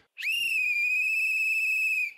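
A single long, loud referee's whistle blast at a steady high pitch, starting abruptly and held for about two seconds before cutting off, with no talking.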